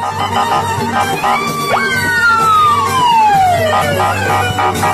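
A loud police siren sweeps up sharply, then wails in a long descending glide over a steady low rumble of traffic noise.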